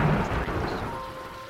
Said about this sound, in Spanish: Tiempo después, una tormenta azotaba la casa. Los vientos abrían las ventanas